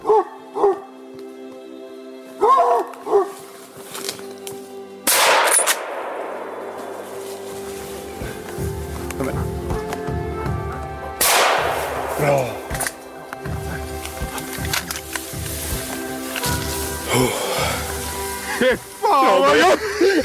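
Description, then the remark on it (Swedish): Two loud, sharp gunshots ring out several seconds apart outdoors during a hunt, each with a booming echo trailing off, while dogs bark and whine excitedly in the background throughout. “Så det var bara upp och, upp och skjuta. Jag tänker att vi skulle kunna spela upp eh, lite, lite snabbt bara hur det, hur det lät.”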